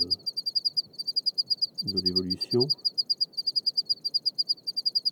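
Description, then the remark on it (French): Several crickets of undetermined species chirp steadily at night on a reg, a stony desert covered in blocks and stones, in fast, high-pitched pulsing trills with a distinctive rhythm, continuing throughout while a man briefly speaks over them. “il y a ce soir euh, plusieurs grillons. Alors ils sont indéterminés, j'ai pas réussi, je ne connais pas l'espèce, mais ils ont un rythme très particulier et ils sont très agréables.”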